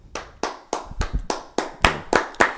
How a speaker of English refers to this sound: I went for the claps.